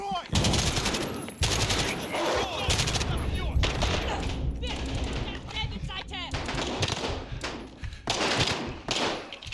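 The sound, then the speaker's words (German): Sustained bursts of rapid machine gun fire from a video game, loud, with dense overlapping shots and brief gaps between volleys, and voices speaking underneath. “Kannst du feuern?”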